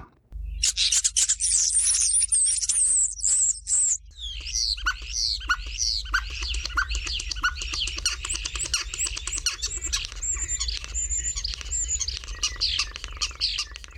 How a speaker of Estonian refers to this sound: ja kuldnoka häälitsus, nagu kohe kuulete, erineb musträst omast ikka väga palju.